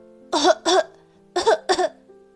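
Four harsh, loud coughs come in two quick pairs with a short pause between them, like someone choking and sputtering on straw dust kicked up after crashing into a large golden bird's nest in a tree. A faint steady hum sits underneath.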